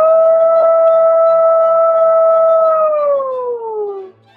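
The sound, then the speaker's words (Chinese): A person imitates a wolf howl: one long, steady, loud wavering tone held for about three seconds, then sliding downward in pitch as it fades out. “然后啊，我还会狼叫。”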